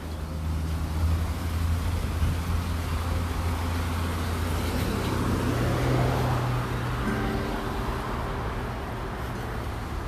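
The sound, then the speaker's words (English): An Aramark truck engine rumbles steadily as it drives past in a park, a deep droning hum with shifting low tones, with faint traffic noise around it. “Oh, there's an air Aramark truck.”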